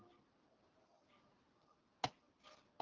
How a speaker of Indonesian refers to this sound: Misalnya, ini aku sekarang rekaman misalnya gini. Di belakangku ada suara jam. Tik. Iya. Tik. Tik. Tik.